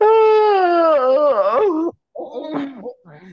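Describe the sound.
A long, loud voiced yawn that holds a drawn-out, wavering moan for nearly two seconds, then breaks off into a brief pause before a person starts talking.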